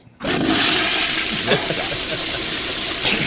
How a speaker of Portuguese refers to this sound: Dá uma descarga.